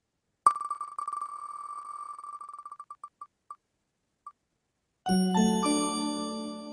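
A prize wheel spins with rapid, high-pitched ticks that gradually slow and space out until it stops, followed after a pause by a bright, loud musical chime fanfare.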